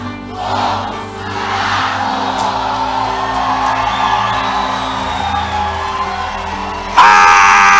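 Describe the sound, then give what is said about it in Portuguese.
A large audience shouts and cheers together in a loud, sustained roar of many voices filling the room, ending with an abrupt shift to a brighter, even louder burst. “Agora você precisa gritar o que eu vou gritar aqui.”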